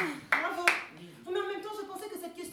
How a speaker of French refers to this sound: Non mais bravo J'applaudis.